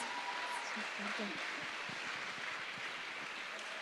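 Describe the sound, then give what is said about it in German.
An audience claps steadily for about four seconds, a dense, even wash of clapping hands at a constant moderate level. A few murmuring voices rise briefly underneath early on. “Gibt ihr mal einen Applaus.”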